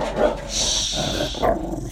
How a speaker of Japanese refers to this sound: 近所のバイクの人が帰ってきて「ライが吠えてますすいませんうるさくて」静かにしてない。